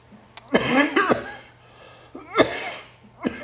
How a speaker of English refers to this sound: here comes the cough.